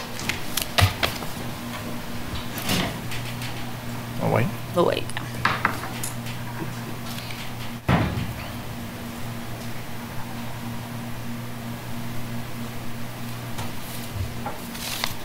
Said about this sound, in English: Oh, looks like the door's locked. I'm not sure. I'll grab it.